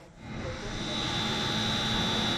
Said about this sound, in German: Der ohrenbetäubende Lärm der Pumpen dringt durch eine Tür. Eine Treppe tiefer laufen mächtige blaue Rohre die Wasserleitungen zusammen. Von hier aus wird das Wasser aus der Stadt gepumpt.